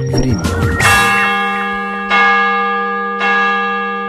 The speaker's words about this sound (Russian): Вот это Брюссель, столица Бельгийского королевства. А слышите вы колокола Русской Православной Церкви и Иовы Многострадального на Рюдифре.